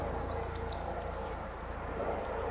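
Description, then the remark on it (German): A circling helicopter drones steadily, its low, throbbing rotor hum holding at a constant level throughout with no clear approach or fade. “Ich glaube, der kreist. Das ist ein Hubschrauber, ja.”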